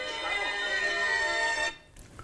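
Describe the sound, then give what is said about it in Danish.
A telephone rings in one sustained, bright, buzzy burst lasting under two seconds, then cuts off abruptly, leaving quiet room tone. “ringer telefonen også.”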